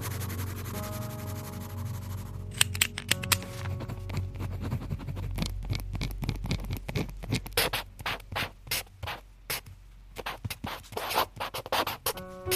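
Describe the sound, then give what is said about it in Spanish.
Scratching of a pen writing on paper in a notebook, in quick irregular strokes that begin after a brief quiet hum and continue steadily. No one speaks. “Yo elijo muy bien dónde escribo y con qué escribo. Para mí es muy importante el tacto, el color, el olor, y por supuesto el sonido.”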